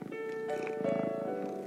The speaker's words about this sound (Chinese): 小猫发出难过的咕噜声。